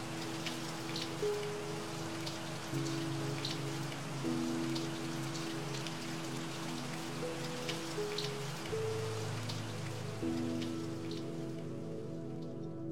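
Steady light rain patters against a window in a continuous wash, scattered drops tapping through it, while a soft sustained musical drone shifts slowly underneath.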